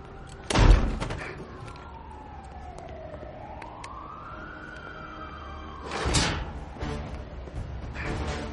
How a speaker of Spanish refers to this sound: Salen a una azotea. ¡Atranca la puerta!